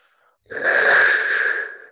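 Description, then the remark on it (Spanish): A jaguar whistle is blown once, giving a loud, raspy, breathy growl with a hissing edge that holds for just over a second, then fades. No one speaks. “El silbato de jaguar, muchachos.”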